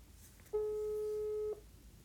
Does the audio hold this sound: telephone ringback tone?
yes